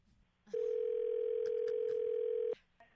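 After a call is hung up, a steady, unbroken telephone dial tone hums loudly for about two seconds, then cuts off abruptly, leaving faint background noise with no one speaking.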